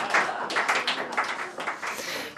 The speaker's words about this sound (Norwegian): Det er lov å klappe nå, altså.